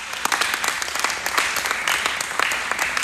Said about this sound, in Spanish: un fuerte aplauso.